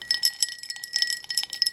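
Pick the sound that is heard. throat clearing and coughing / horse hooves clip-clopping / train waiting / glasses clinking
glasses clinking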